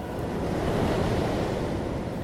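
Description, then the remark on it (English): Steady rolling ocean surf with a broad, continuous wash of noise, heard alone, with a faint windy hiss and a brief sharp click near the end. “I will try and replace every cough noise in this podcast with noises of the ocean.”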